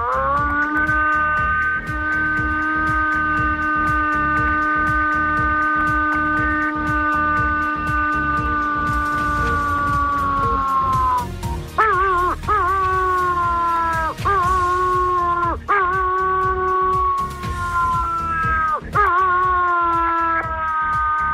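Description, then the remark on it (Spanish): A person imitates a wolf howl, the kind of call used to call wolves: one long, steady, loud howl held for about ten seconds, then a string of shorter howls that swoop up and down in pitch. “Te lo pido, por favor, haznos una llamadita de esas que tú llamas a los lobos.”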